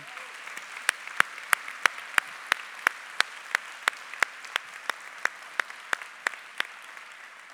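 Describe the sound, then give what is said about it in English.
Steady, evenly spaced clapping in a church, about three sharp claps per second, roughly eighteen in all, gently fading before stopping near the end, with no talking over it. “I'm not sure why there isn't anyone clapping right now to show at least some appreciation.”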